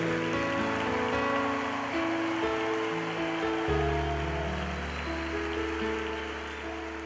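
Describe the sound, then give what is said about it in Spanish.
Sustained applause from a crowd for "the King", a dense, steady wash of clapping that stays loud for about seven seconds, with a low held musical tone underneath. “Un aplauso para el Rey.”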